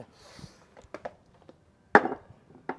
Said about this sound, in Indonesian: Biar lo gak bacot, puter dulu dadunya. Wah kita puter deh dadu ya deh.